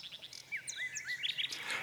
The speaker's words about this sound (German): So wie sie sang, wurden die Gespenster bleicher und bleicher. Das Blut kam immer rascher und rascher in des Kaisers schwachen Glieder in Bewegung, und selbst der Tod horchte und sagte, Fahre fort, kleine Nachtigall, fahre fort.